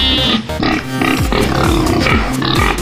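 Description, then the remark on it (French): Loud, continuous barnyard animal noise, pig-like grunts and squeals overlapping in a dense chorus with no pauses, from livestock such as cows and sheep among thousands of visitors at the 52nd Salon de l'Agriculture agricultural show. “Des vaches, des moutons, de la paille, des agriculteurs, du fromage, des milliers de visiteurs.”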